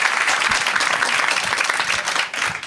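A crowd applauds steadily, dense clapping from many hands filling the hall at a consistent loudness, tapering slightly near the end, as the audience answers by applause who gets a stomach ache when ill.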